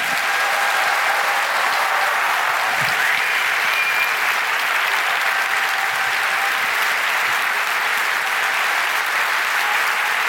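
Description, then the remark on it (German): Loud, sustained applause from a large live audience at Die Zeit's Lange Nacht der Zeit, bidding farewell to guest Robert Habeck, Germany's economy minister and vice chancellor, fills the whole stretch, a dense, steady roar of clapping with no speech over it. “Und Davon völlig abgesehen wünsche ich Ihnen einen wundervollen weiteren Abend, aber nicht bevor wir unseren Gast Robert Habeck, den Wirtschaftsminister und Vizekanzler, mit einem donnernden Applaus verabschieden.”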